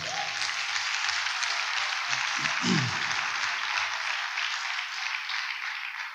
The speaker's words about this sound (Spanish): ¿Por qué no le damos un aplauso a Dios por eso?